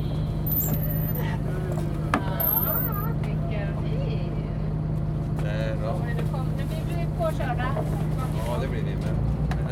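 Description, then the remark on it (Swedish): A ship's engine drones steadily and loudly throughout, a constant low hum with a tonal throb, as the ship motors out from Stockholm under engine power, while people talk over it. “Nu är vi på väg ut här med skeppet Sunbeam. Och vi går för motor ut från Stockholm.”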